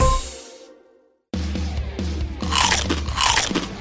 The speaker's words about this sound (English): I just wrapped my chompers around a nice, beefy, cheesy, creamy, spicy, saucy, crunchy taco. It's like there's a flavor explosion inside my mouth right now.